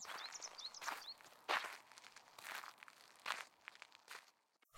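Footsteps crunch steadily over dry ground or leaves at a walking pace as someone walks on after sitting on a bench watching birds under a cloudless sky, with brief chirping birdsong in the background at the start.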